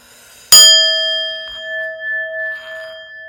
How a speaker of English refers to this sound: And just listen to the singing bowl and join in with me repeating this mantra I am powerful beyond belief.